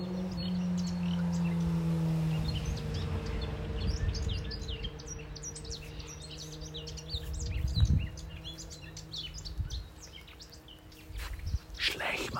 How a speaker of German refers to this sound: Glaubst du, unterhalten sich die Vogeln so wie wir? Machen die vielleicht einen Vogelpodcast?